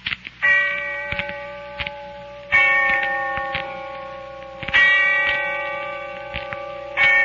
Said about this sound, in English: And when I heard the bell tolling somewhere in the distance, I remembered. I remembered what night this was.